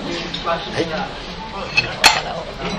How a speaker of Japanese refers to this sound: このね、はい、あのお茶碗の音とかね、カチンカチンカチンカチンこうのがいいです。これホスト側がね、あのレスするんですよ、サーブするんですよ。